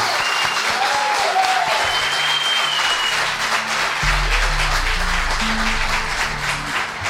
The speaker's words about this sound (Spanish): Yo pediría a todos un fuerte aplauso